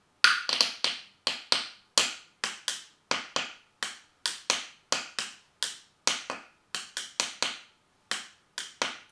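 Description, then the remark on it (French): Light wooden clicks as two pencils with leads inside are tapped together gently like drumsticks, about twenty-five crisp hits in a steady rhythm, some falling in quick pairs, with no voices. “Aujourd'hui, là, j'en ai pas, donc j'ai pris des crayons.”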